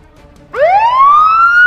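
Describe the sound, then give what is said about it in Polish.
A police siren kicks in after a brief quiet moment and winds upward in one long rising wail, loud and steady, as police and an ambulance approach from afar; no voices are present. “W momencie słychać z daleka już jak nadjeżdża jakaś obstawa. Policja? i karetka pogotowia.”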